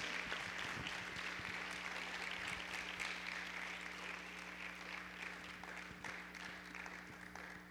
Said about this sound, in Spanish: ¿Alguien puede todavía aplaudir después de la regañiza o no? Muy cortito el aplauso, ¿eh? muy cortito. No es para mí, hermano, es para Dios.